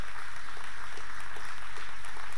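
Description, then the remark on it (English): A crowd claps steadily in a church service, giving God a hand clap of praise: a dense wash of many hands applauding together at moderate volume, continuing throughout without any voices standing out. “We serve an awesome God, and give God a really good hand clap of praise this morning.”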